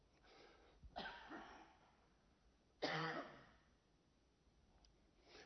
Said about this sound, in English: I'm going to say excuse me now, and that applies for every future cough. Excuse me.